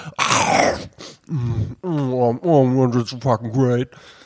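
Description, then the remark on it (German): A voice imitates loud, relishing eating sounds of people eating: a noisy breathy slurp followed by drawn-out, voiced "mmm" moans of enjoyment with smacking breaks, fairly loud, with no other sounds around. “Es wird sehr genussvoll dann auch bei diesen Menschen gegessen, immer so.”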